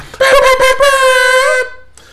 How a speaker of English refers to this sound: Hit this man with the air horns.